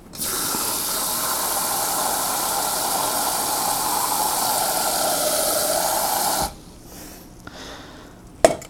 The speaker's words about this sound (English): And, one, and fill the bowl again with water.